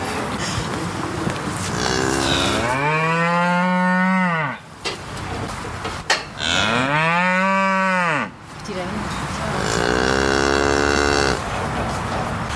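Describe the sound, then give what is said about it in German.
Cattle, calves and mother cows lying and standing on straw, moo in a barn: three long, loud, low bellowing calls, each rising and falling in pitch, with short pauses between them and a steady background noise throughout. “wir waren jetzt ja gerade hier im Stall mit dir und haben da äh, die Kälbchen gesehen und auch die Mutterkühe und die lagen da ja schon so, standen auf Stroh auch.”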